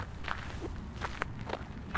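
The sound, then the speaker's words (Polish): Slow, deliberate foley footsteps shuffle along at an uneven pace, each step a soft scuff, performed to portray an elderly man going for a walk, recorded with the microphone held at about hip height, with no voices. “Także ja sam sobie tutaj nagrywałem, też już z myślą o tym właśnie, jak ten starszy człowiek idzie na spacer, czyli miałem tam właśnie taką w krokach jakąś, nazwijmy to, intencję aktorską.”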